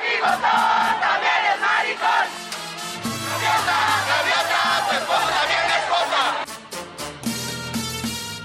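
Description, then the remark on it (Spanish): An LGBTTI community protest crowd at the Ángel de la Independencia, with multicoloured flags, chants loudly and steadily, demanding respect for their rights and constitutional recognition of marriage; many voices shout in rhythmic unison with bursts of cheering and whistles over a dense, continuous roar. “De un lado, jocosos cantos y banderas multicolores.”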